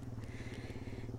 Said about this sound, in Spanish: se escucharon una moto de fondo, este, pues ni modo que verdad estamos en San Felipe